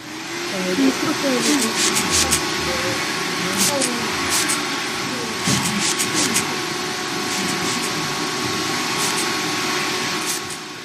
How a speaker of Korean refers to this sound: 청소기의 모터 소리가 들리고 벽과 천장에 분사되는 소독약 냄새가 집안에 퍼졌다.